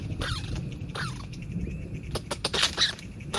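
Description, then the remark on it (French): An adult small nocturnal rodent gives sharp alarm calls and high, squeaky cries in quick bursts, louder toward the end, warning its family of danger as a cat's shadow passes, over a faint rustling background with no one talking. “Au passage de l'ombre d'un chat, un des adultes donne l'alerte. Il tout et crie pour prévenir toute la famille du danger.”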